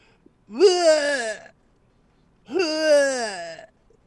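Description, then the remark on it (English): Two drawn-out, strained retching noises made by a person's voice, each about a second long with a pause between, loud and close, imitating someone throwing up. “And then I made this fake vomit and I went in there and and I and I made it sound like this.”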